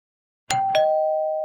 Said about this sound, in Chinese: 叮咚。第一位客人来了，是柔一。